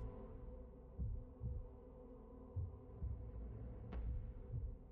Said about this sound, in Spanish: lo que sí oímos es el latido del corazón débil de Connor, anclado a esa pared